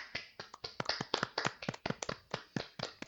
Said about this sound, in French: Donc, messieurs, je vous propose qu'on applaudisse pendant 5 secondes.